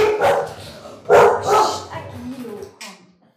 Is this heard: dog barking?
yes